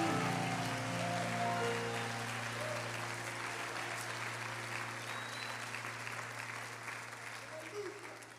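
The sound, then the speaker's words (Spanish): An audience applauds the name of Jesus steadily for several seconds, a dense wash of clapping over a sustained low organ or keyboard chord, gradually easing slightly in loudness toward the end. “Denle un aplauso a ese nombre, gloria a Dios.”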